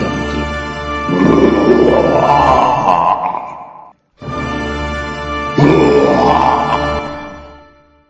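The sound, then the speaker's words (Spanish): A lion roars twice, two long, loud, rumbling bellows separated by a brief pause, each swelling in a deep growl and then fading away. No one speaks. “El león sintió el piedrazo, abrió los ojos de golpe, se levantó, volteó para todos lados y dio un fuerte”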